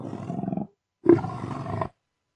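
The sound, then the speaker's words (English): Two loud dragon roars, each a rough, growling burst under a second long, separated by a short silent pause, with no other sounds around them. “And he goes rah rah like a dungeon like dragon.”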